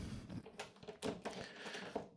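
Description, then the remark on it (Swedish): A door is handled, with a few sharp clicks and rattling knocks as it is opened to let a cat out, with no talking. “Och eh, nu vill katten gå ut här. Jag har stängt dörren.”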